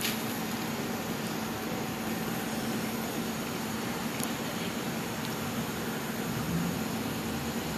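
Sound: helicopter flying overhead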